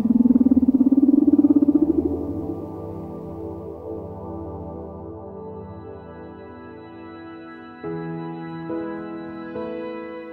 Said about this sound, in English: when you're listening underwater to whales, that can be incredibly cathartic. It's such a pure sound, the way that those sounds manifest themselves underwater. Hearing them underwater in person is quite an experience.